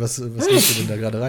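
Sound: sneeze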